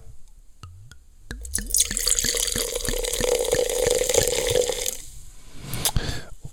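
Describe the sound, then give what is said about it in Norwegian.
A few quick drips, then freshly opened Alde cider, 6.8% alcohol, pours steadily into a glass, fairly loud, its gurgle rising in pitch as the glass fills before tapering to a fizzy trickle. No one speaks. “Nå skal jeg helle i glass her, det har jeg akkurat eh, åpna, det hørte dere jo.”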